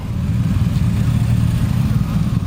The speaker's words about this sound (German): Unterdessen knattern immer wieder blau-gelbe Motorradkonvois auf den Hof. Die Polizeieskorten probieren die Fahrtwege aus.